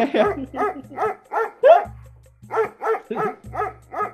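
A dog barks in a quick, steady run of about ten sharp barks, fairly loud, with brief gaps between each and a low hum running underneath.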